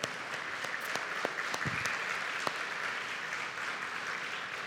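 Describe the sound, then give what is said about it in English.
A church audience gives a steady round of applause to thank two families, dense overlapping claps forming a continuous wash of sound with a few sharper individual claps standing out, holding an even level throughout. “could you stand and would you just give them a round of applause and thank them for.”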